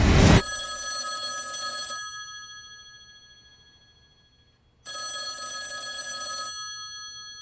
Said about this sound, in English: Two things are gonna happen in the next 90 seconds. Excuse me? First, that phone over there is gonna ring.